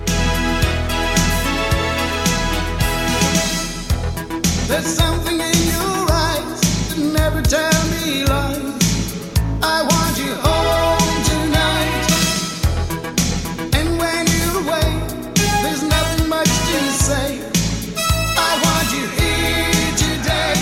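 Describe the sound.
A pop song plays at a steady, fairly loud level, with a male singer's voice carried over a full band backing of bass, drums and bright accompaniment throughout.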